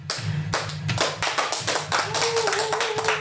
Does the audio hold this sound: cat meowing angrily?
no